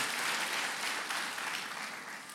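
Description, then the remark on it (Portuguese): A crowd claps steadily in a round of applause for the fruit of the Spirit, a dense wash of overlapping hand claps with no clear rhythm, holding level and then easing off slightly toward the end. “Oh, uma salva de palmas para o fruto do Espírito.”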